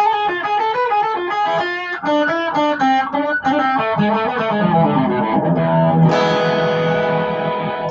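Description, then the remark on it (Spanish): An A harmonic minor scale, with the seventh degree raised a semitone to G sharp, played note by note on an instrument with a distorted, effects-laden tone, stepping through quick even notes before ending on a ringing sustained chord. There is no talking. “es la escala menor armónica que también es muy útil.”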